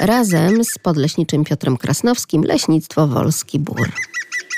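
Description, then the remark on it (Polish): A man talks for several seconds, then a short burst of high, thin, repeated spring calls from blue tits and great tits rings out clearly just after his voice stops. “To, co słyszymy za moimi plecami, to sikorki, zarówno modraszka, jak i sikorka bogatka.”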